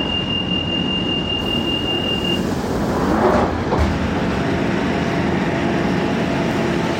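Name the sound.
metro train running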